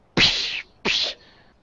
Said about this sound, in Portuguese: Aí você só escuta um barulho de chicote, barulho.